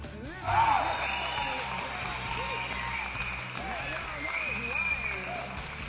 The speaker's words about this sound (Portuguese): vamos parar um momento todo mundo em silêncio só para ouvir palmas virtuais